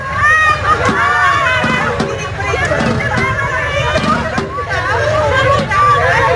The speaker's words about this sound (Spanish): Esos llantos y lamentos que escuchan anuncian el fin del carnaval con ese ritual tan conocido del entierro de la sardina.